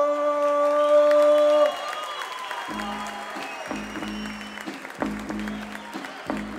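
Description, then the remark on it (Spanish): A steady electronic horn sounds for about two seconds, then an audience breaks into sustained clapping and cheering, a dense, loud wash of applause with occasional shouts. “Se la está bajando todo el show solo, así que bueno, un fuerte aplauso, a papo, loco, dale.”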